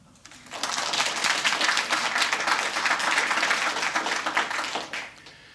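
A burst of applause from a group, dense rapid clapping starting abruptly, holding steady for about four seconds, then cutting off sharply.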